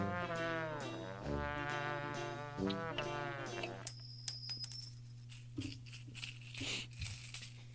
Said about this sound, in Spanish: ¿Y ahora por qué viene contando monedas? ¿Eh? ¿Por qué viene contando monedas? ¡Ah, las monedas! Es lo que se queda la cascariada de este fin de semana, caballo. me pagaron con propina, fíjate.